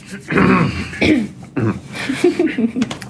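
Several people clear their throats in quick succession, a string of rough, rasping bursts followed by a few shorter grunting hems, with no words spoken.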